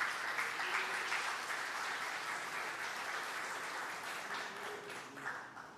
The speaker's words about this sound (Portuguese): Pode aplaudir, irmãos.